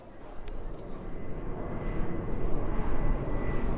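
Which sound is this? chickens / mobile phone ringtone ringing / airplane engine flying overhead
airplane engine flying overhead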